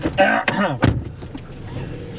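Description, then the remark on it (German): A car door is shut with a single solid, low thump, preceded by a lighter click and a brief muffled voice, then quiet car interior hum, as someone gets into the car. “Steig ein, die Tür richtig zu.”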